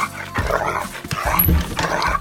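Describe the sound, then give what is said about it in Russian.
Altai, a shepherd dog, gives a few loud, excited greeting barks in quick bursts, mid-pitched with whiny overtones, with no one speaking. “здоровается, моя овчарка”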